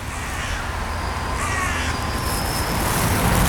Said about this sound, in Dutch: Nou, dat is ook wel grappig. Dan zit je naar die kraai te kijken